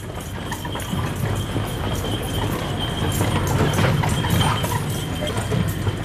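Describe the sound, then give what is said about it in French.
Steady clip-clop of a horse's hooves pulling a carriage on an island without motor vehicles, a continuous rhythmic trot over a rumbling background of wheels and street ambience, with no one speaking. “C'est en calèche qu'on se déplace euh, sur l'île, hein.”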